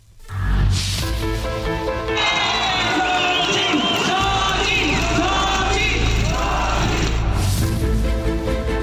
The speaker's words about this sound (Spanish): Más de 40.000 personas arroparon y aplaudieron a la que será la candidata del Frente Amplio por México, Xochitl Gálvez.